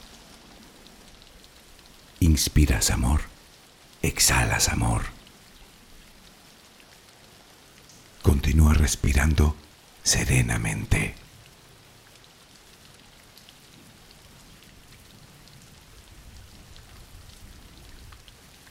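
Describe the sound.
Steady, soft rain hisses continuously in the background of a Spanish-language sleep relaxation while a calm voice speaks a few short, unhurried phrases over it, with long stretches of rain alone between them.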